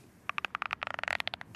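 A dense run of sharp creaks and crackling ticks as a folding phone's hinge opens, about twenty quick clicks over a second and a half, with no talking.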